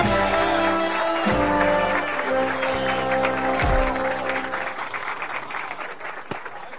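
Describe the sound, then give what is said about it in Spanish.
Steady applause from a group of people welcoming Walter Baxter, the company's new general director, runs throughout while a band plays brass-heavy music with sustained chords underneath as he is given a welcome gift and photographed, the music fading slightly toward the end as the clapping continues. “La chica pelirroja le dice algo a la morena mientras aplaude. La banda toca una pieza de música mientras al recién llegado le entregan un regalo de bienvenida y le hacen una foto con él.”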